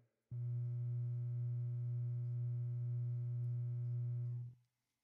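gamma binaural beat tone

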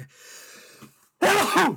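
sneeze

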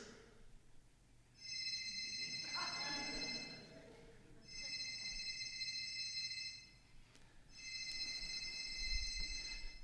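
cell phone ringtone

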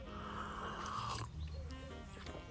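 sipping coffee

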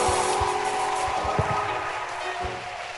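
audience clapping

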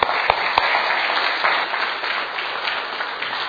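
audience applause welcoming speaker

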